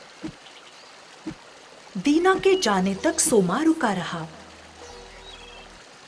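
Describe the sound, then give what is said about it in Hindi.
Flowing river water in a forest, at the bank where a woodcutter starts his work, runs as a steady, quiet wash throughout, with a man's voice speaking over it for a couple of seconds in the middle. “दीना नदी के किनारे जाकर अपना काम शुरू करता है आ, ये वो नदी है जिसमें उसकी कुल्हाड़ी गिरी थी”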